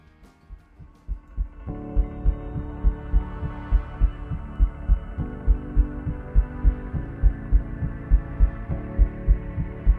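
A steady, deep heartbeat thumps in a regular double-pulse rhythm throughout, soon joined by a sustained, humming musical drone that swells underneath the beats.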